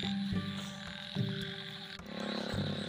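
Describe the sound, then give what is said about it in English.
Frogs croak in a steady, overlapping chorus of low, droning calls that pulse and shift, fairly loud, over a constant soft hiss of light rain, beside a road near a jungle. “it's time for raining so that frog is the frog sound is coming and it's little bit raining”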